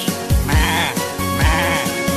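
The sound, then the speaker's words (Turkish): A lamb on a farm bleats several times in quick succession, wavering and fairly loud, over a steady musical backing with no talking. “Ali Baba'nın bir çiftliği var. Çiftliğinde kuzuları var.”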